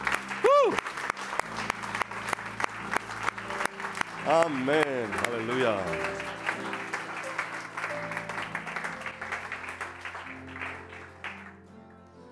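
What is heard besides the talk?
audience applauding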